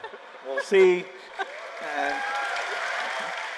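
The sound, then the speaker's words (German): An audience of listeners breaks into steady, sustained applause for a speaker's jab at President Trump, swelling after a moment, with a few voices calling out over the dense clapping near the start. “Beifall der Zuhörer für diesen Seitenhieb”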